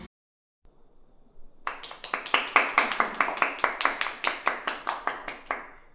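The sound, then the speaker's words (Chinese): After a brief quiet murmur, people break into steady, rhythmic clapping: sharp, crisp claps at an even pace that continue for about four seconds, with no voices over them. “我是不知道为什么要鼓掌，跟着一起鼓掌的小保姆。”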